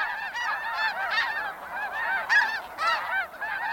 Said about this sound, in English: A flock of geese wings across the sky in perfect V shaped formation. It's one of the most enduring images of migration.